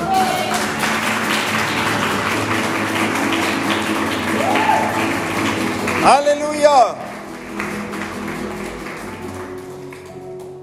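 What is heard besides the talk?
audience applause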